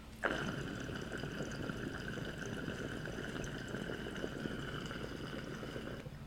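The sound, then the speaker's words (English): Water gurgles and bubbles continuously through a large glass recycler pipe, fatter and taller than a regular recycler, for about six seconds, steady, with a faint airy whistle riding over the churning burble. It starts abruptly and stops cleanly. “Uh, these things move so much water effortlessly.”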